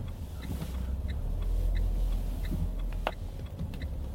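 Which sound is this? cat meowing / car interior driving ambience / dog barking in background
car interior driving ambience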